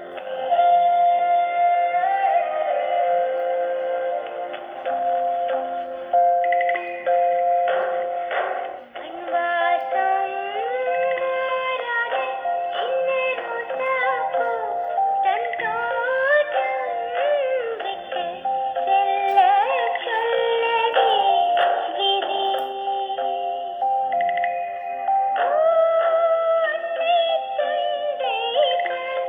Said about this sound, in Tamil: மண் வாசனை இன்னொரு அழகான ஒரு சீரியல் ராஜ் டிவியில் மண்வாசம் அப்படின்னு ஸ்டார்ட் பண்ணும்போது இந்த title song Trent Trent Trent Trent அப்படின்னு வந்து என்ஜாய் பண்ணி கேட்பேன்